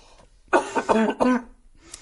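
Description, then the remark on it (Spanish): A short burst of several loud coughs in quick succession, throaty and slightly voiced, with no one talking, then the sound trails off into quiet. “Perdonad, eh, estoy tosiendo mucho últimamente.”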